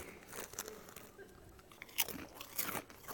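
Crunching on Doritos chips: several crisp, irregular bites and chews, fairly quiet, with sharper crackles near the end and no talking.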